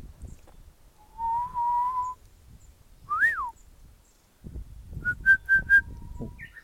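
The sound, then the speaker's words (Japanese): A Japanese bush warbler sings clearly: a long, steady whistled note, then a quick rising-and-falling slur, and later a short run of four bright pips over faint low background rumble. “さとしさん主催の「円座」が最高だった！🦜ﾎｰﾎｹｷｮ配信”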